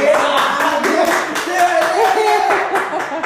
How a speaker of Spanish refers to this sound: Y se me hace un fuerte aplauso